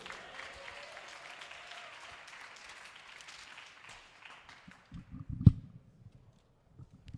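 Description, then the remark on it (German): An audience claps steadily for a performer walking onto the stage, a dense, even wash of applause that fades out after about four seconds, followed by a few scattered thumps and knocks, one sharp and loud. “Applaus, bis er auf der Bühne ist.”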